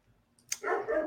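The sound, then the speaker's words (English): A dog lets out a quick burst of barking, a sharp yelp followed by a longer, throaty bark, fairly loud with no one speaking. “I got some dogs barking in my background, so it's gonna be great audio.”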